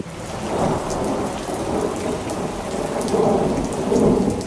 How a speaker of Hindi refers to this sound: ये देखो बारिश भी आ गई यानी मानसून आ गया